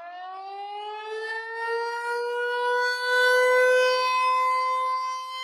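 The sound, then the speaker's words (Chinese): An air-raid siren wails steadily, its tone rising slowly in pitch and swelling louder midway through, with no voices over it. “我是什么时候意识到这个是防空警报呢？”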